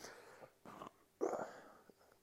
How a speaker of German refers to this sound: Hört man das im Podcast, wenn ich rülpse?